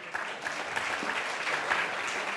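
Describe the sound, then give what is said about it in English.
An audience applauds for Tu Ciudad magazine during a speaker's introduction, a dense, even wash of many hands clapping at once with scattered sharper claps standing out, sustained at a fairly constant loudness throughout. “Give applause to Tu Ciudad.”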